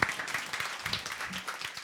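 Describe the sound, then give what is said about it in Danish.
Audience applause: a dense, steady patter of many hands clapping at once, fairly quiet and even throughout, with a faint murmur of voices mixed in. “Og nu får du lige en klapsalve.”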